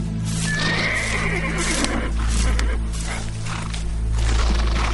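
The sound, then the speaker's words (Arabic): A horse neighs with a drawn-out, wavering whinny in the first couple of seconds, set against a steady low rumble and rough outdoor noise that continues to the end. “سايس سايس سي يوخر بيك الحصان جيبوا من هكا جيبوا هذاك لازم شاف حاجه وسط الحشيش ايش ممكن يراه قل لي بربي شنو مادام فل لازم شاف هايشة ولا حنوشة سايسو بشوي بشوي بشوي”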